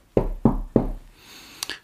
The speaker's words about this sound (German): Zwei Tage später klopfte es wieder an der Tür.